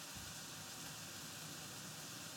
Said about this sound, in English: Oh, thank God, the air conditioning came on.